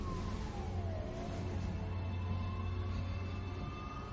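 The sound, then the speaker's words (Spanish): A steady, low rumble of the engines of two cars parked outside at night, idling without a break for the whole stretch, with a faint thin whine drifting above it and no voices. “Fuera y parados dos coches en marcha.”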